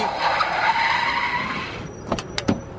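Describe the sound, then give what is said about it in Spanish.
A taxi's tires screech loudly in a long, sliding skid for nearly two seconds, then cut off, followed by a few sharp clunks as the taxi comes to a stop. “Taxi.”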